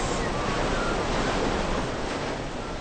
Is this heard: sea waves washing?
yes